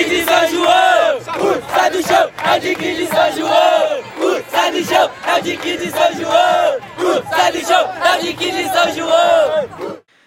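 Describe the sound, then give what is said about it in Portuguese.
A large crowd of football supporters, who travelled in force from São João de Meriti to Bangu for a final, chants loudly in unison, voices rising and falling in rhythmic waves of cheering that continue steadily for about ten seconds before stopping. “O Dick chegou como azarão na final e jogou de igual para igual, graças à torcida, que foi em peso de São João de Meriti até Bangu para apoiar o time.”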